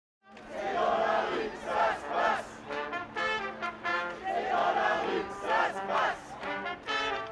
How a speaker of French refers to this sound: Ok, on passe en direct de la manifestation.